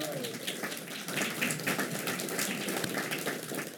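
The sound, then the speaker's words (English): A crowd claps in a dense, steady burst of applause for the parents of author J Mart, loud and continuous throughout with no voices heard over it. “So give his parents a round of applause for.”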